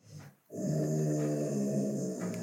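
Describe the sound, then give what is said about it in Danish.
A dog growls low and steadily for about two seconds, a rumbling continuous snarl after a brief quiet moment, with no one speaking over it. “Jeg tror, at din hund er enig.”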